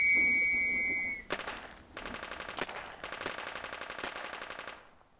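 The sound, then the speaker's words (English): A sharp, sustained whistle blast, the First World War trench signal to go over the top, sounds alone, then cuts off as loud, rapid machine gun fire erupts in long rattling bursts with brief pauses, continuing to the end. “For them, it was a waiting game, a long, cold, mud soaked ordeal broken only by the call to go over the top, a suicidal charge into a hail of bullets, usually at a whistle's blow.”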